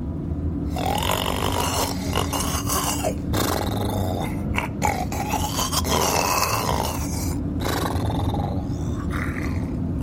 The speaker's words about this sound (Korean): 남편은 코까지 골았다. 그 소리가 거슬리는지 둘째가 룸미러로 남편을 흘끔거렸다 그녀로서는 남편이 엉뚱한 소리를 내뱉는 것보다 잠든 편이 나았지만 코 고는 소리는 못내 신경 쓰였다.